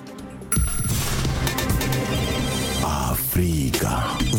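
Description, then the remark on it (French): A telephone rings with a loud, melodic ringtone before the Africa Radio answering machine picks up, a busy run of bright tones that starts abruptly after a brief hum and continues steadily, with no voices. “Avant de vous donner la parole, on écoute vos messages laissés euh, sur le répondeur d'Africa Radio.”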